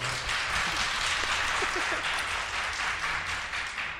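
Audience applause for Powerplay, a show produced by Svampriket: a dense, steady wash of many hands clapping, sustained for several seconds at an even level before tapering slightly at the end.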